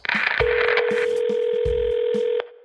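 A steady electronic telephone tone holds for about two seconds while short dialing beeps and clicks punctuate it, then it cuts off abruptly. No one speaks.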